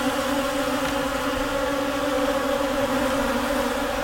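A dense, steady buzzing of about 50 flying creatures, like a swarm passing overhead, with a constant droning hum and no pauses or voices.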